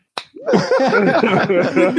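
One sharp, close hand slap from a high five cracks out, then several voices start talking and laughing right after it.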